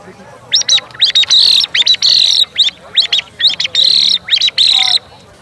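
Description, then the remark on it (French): A person imitates the song of a song thrush, whistling bright, repeated chirping phrases in quick rhythmic bursts, fairly loud, with short pauses between groups of notes. “C'était le chant de la grive musicienne.”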